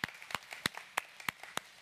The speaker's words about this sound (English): Yeah, you can clap. That's awesome.